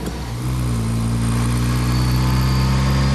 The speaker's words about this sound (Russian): Опустевшие улицы окраины города, ни людей, ни машин, вдали виден Бруклинский мост. Феррари медленно едет по улице, теперь за рулем Фрэнка. Рядом Чарли подсказывает, куда ехать, иногда придерживает руль.